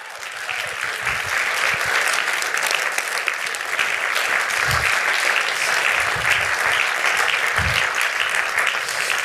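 Sustained audience applause, a dense, steady wash of clapping hands that stays loud and even for the whole stretch, with a few scattered voices faintly mixed in.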